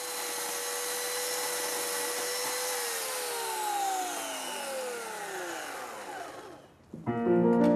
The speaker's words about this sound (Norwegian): Mellom de gamle, smale hendene spinner motorsagen skarpe tenner med 2000 watt.